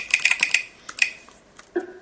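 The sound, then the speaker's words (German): Quick keyboard typing of an admin password into an installer: a rapid burst of about six crisp key clicks, a short pause, then two more taps, moderately loud, followed by a brief softer tone near the end. “Ah, jetzt muss ich das Admin-Passwort, also mein, mein, mein, äh, mein, mein, mein Kennwort eingeben.”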